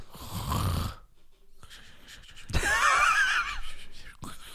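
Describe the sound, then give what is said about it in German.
A voice imitates snoring with two rough, raspy bursts, the second longer and wheezier with a whistling edge, separated by a short pause, fairly loud. “Und du hast geschnarcht. Aber du schnarchst so komisch.”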